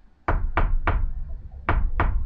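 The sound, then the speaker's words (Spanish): Loud knocking on a wooden surface, reenacting rhythmic knocking heard from inside a built-in wardrobe, in two sets of three evenly spaced raps separated by a short pause, with no talking. “como rítmico, ¿no?”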